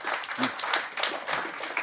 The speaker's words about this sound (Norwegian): Altså, nå har vi nettopp applaudert en som har spilt i Monaco, Liverpool og Fulham, og så skal jeg få applaus for det.